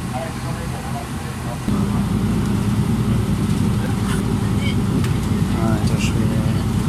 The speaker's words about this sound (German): Der Fahrer steuerte den Bus ganz vorsichtig die Serpentinen bis zur Passhöhe hinauf.